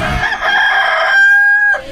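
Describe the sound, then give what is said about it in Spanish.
A single loud rooster crow from a Laboratorios Yayo rooster alarm clock, starting with a rough rising burst and ending in a long, steady, drawn-out note, with no other sounds around it. “Levántese como en el rancho con el canto de un gallo.”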